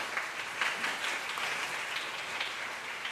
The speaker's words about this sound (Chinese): 所以我们非常高兴他们在我们当中啊，让我们用最热烈的掌声，请他们站起来，我们来欢迎他们。